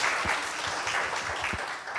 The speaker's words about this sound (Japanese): Clap your hands if you think that's a good idea. いいアイデアだと思う方は拍手いただけますか